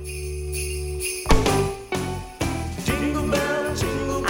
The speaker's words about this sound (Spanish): Es más, escucha la música de fondo. Oiga, oiga.